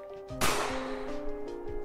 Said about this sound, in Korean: 난데없이 총성이 울렸죠.